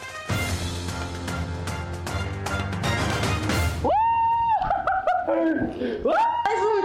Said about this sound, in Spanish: me asusté dije, ¿ese grito también es mi tía?